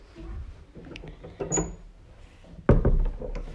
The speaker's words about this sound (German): er macht die Tür zu.